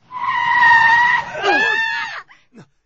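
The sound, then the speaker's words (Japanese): Car tires screech loudly in a long skid as the car swerves sharply to avoid a black cat struck by a car ahead on the road, a steady high whine that wavers and bends in pitch before cutting off, followed by a couple of brief thuds. “急ハンドル切ってかろいてかわしたんですが、我々が見たものは、惹かれたばかりの黒猫の死骸でした。”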